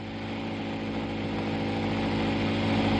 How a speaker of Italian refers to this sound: da un'accelerata che dobbiamo arrivare fino a Bologna.